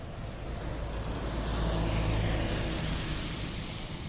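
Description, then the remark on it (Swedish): A car drives past on a street by the Bröderna Ahlgrens marmor natural-stone shop, its broad engine and tire rumble swelling toward the middle and then fading slightly, heard alone with no talking. “Det är den bilen som eh, lät där nu.”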